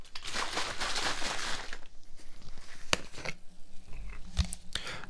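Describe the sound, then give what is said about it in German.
Someone takes a sip of orange juice, opened a week earlier and soon to expire, from a plastic bottle: a burst of crinkling plastic, then quieter moments broken by a couple of sharp clicks and a soft low gulp, with no talking. “Ähm, ah, ich werde mal hier einen Schluck trinken.”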